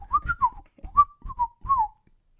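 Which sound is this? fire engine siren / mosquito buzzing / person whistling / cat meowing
person whistling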